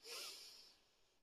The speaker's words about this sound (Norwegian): Da begynner vi med å tømme hodet vårt for tanker. Og det gjør vi med å puste godt inn med nesa.